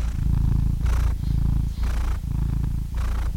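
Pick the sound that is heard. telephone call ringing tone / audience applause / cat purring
cat purring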